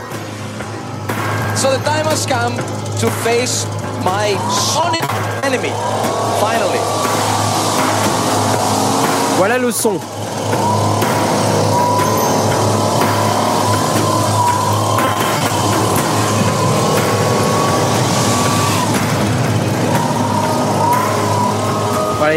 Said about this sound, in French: moi j'ai eu euh, la, chance d'avoir un souffleur de feuilles, donc c'est génial et tout. Et en fait le mec il fait euh, il fait du son avec. Alors écoutez ça.